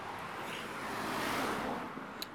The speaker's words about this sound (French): Dans un endroit avec moins de voitures parce que là, ça va pas être agréable.